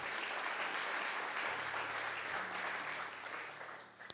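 Steady applause from a crowd for veterans ahead of Veterans Day, a dense wash of overlapping claps holding a fairly even level for about four seconds before tapering off at the end.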